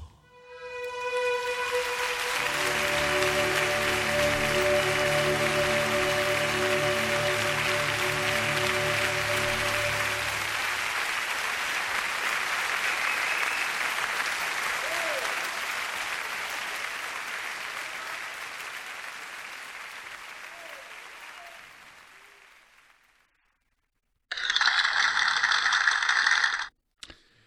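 A crowd applauds loudly after a performance, a dense steady clapping that starts over the last sustained music notes, continues for about twenty seconds, then fades out before a short separate burst of sound.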